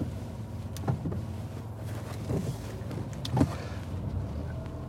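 A car engine hums low and steady as the car reverses slowly all the way back along a chaotic, busy street, with a few soft knocks and clicks from inside the cabin and no one talking.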